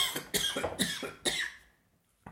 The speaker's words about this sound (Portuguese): Perdoem-me, estou a tossir, não sei se é corona, se é velhice